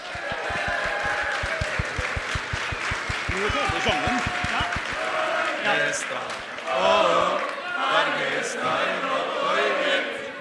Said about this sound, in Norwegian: Det er synd, men det fortjener også en stor applaus.